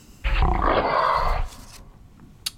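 A mountain lion lets out one loud, rough, full growl lasting about a second, followed by quiet and a faint click.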